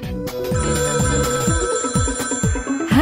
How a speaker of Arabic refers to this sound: بس لانه عم بيرن الهاتف واكيد آه، جدوا حدوا عليه